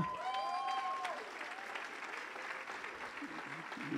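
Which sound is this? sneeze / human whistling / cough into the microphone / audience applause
audience applause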